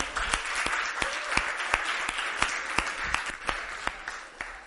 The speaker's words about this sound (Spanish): Un aplauso